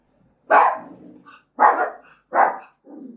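A dog named Nala barks three times in loud, sharp bursts at a steady pace, then gives a softer, shorter fourth bark, reacting to a neighbour closing a door. No one speaks.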